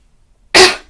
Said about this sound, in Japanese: 失礼しました。すんごい咳しちゃった。